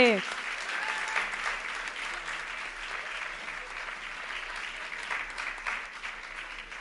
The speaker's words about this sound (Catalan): Demanarem que pugin un representant de cada curtmetratge. Que pugin. Va, no sigueu tímids. Un aplaudiment. Ole!